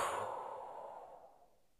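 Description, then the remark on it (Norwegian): A long, slow breath out during a breathing exercise, after breathing in deeply through the nose and holding it; airy, fading gradually over nearly two seconds with no talking. “Og pust ut.”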